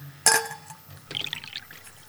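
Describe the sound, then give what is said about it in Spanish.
A sharp clink of a vessel, then a brief splashy pour of warm water into a container, fairly quiet, lasting about half a second, with no voices. “alcánzame un poco de agua tibia y un paño limpio.”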